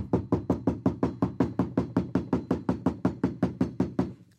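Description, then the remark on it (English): Rapid, relentless knocking on the front door of a church, around twenty heavy blows in a steady, fast rhythm, loud, with no voices. “Okay, I'm like, what is going, what, why is someone at the front door of the church basically going, I'm like, what is happening?”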